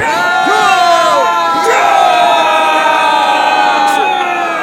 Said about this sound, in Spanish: El pueblo de Israel terminó de dar la séptima vuelta y empezaron a gritar.